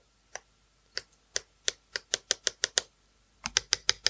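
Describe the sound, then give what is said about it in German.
A pen with its lead retracted taps repeatedly on the hard touchscreen of a new GPS device, making crisp clicks: a few scattered taps, then a quick steady run, a pause, and another fast burst. No one speaks. “Kannst du das neue Gerät mit dem Stift benutzen?”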